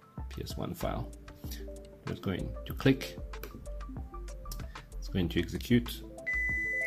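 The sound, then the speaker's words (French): A computer emits a short electronic beep, triggered by a PowerShell script that told the computer to beep, a brief steady tone standing out against a busy background with voices talking. “Voilà, alors le bip que vous venez d'entendre, c'est justement parce que dans le script, il a demandé à l'ordinateur de biper.”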